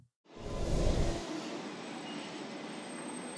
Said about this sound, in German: Ja, jetzt stehe ich wieder am Münchner Hauptbahnhof und warte auf meinen Zug äh, nach Berlin.